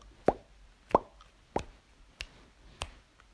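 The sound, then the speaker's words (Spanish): Five sharp, hollow plastic clicks spaced evenly about every half second, each a bright tap with a quick decay, growing slightly fainter as they go, ping-pong balls knocked together. “Eh, chocamos las, las pelotas, ¿no? Y suena.”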